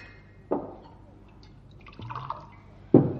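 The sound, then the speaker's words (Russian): A glass clinks, then water is poured into it in a short trickle, followed by another sharp clink of glass being set down. “Дай мне воды-то, я говорить не могу.”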